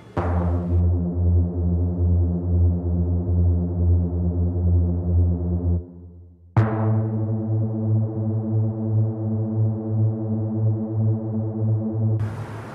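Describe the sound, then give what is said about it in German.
Three French horns sound a loud, sustained low chord twice, the first held about six seconds, then a short pause before a second long, rich chord swells in. No voices. “Der Wolf durch drei Hörner.”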